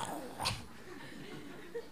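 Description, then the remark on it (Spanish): A man's voice imitates a snore: a single short, raspy snort with a breathy tail, moderately loud, with no other talking around it. “En el segundo ronquido le pasaron 10 años ya.”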